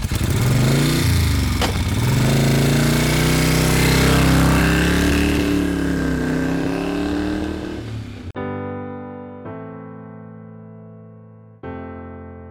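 A motorbike engine is started for setting off into the city traffic of Hanoi, roaring loudly, its pitch rising and falling as it revs, then settling into a steadier, more tonal drone for the last few seconds. No one speaks.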